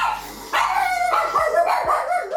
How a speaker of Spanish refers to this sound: Perritos vueltos locos, problemas técnicos. Bueno, ustedes dispensarán si soy oyó un cambio en el audio, porque tuve que huir de mi locación anterior porque los perros se volvieron locos.